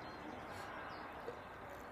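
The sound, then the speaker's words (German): A train passing by, heard as a steady, continuous rumbling roar that holds at an even loudness throughout, with no clear voices over it. “Jetzt kommt der Zug”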